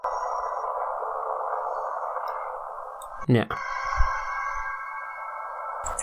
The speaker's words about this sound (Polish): Trochę słychać, ale to nie jest. Znaczy jest bardzo cicho, ja to podgłośnię w postprodukcji, ale chodzi o to, że jest muzyka, tylko ona jest bardzo ambientowa.